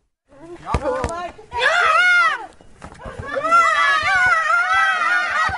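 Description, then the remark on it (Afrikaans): Several voices shout and yell excitedly in overlapping bursts, with a sharp thud near the start, as residents play soccer in a garden, everyone shouting and running after the ball. “Almal skree en hardloop agter die bal aan.”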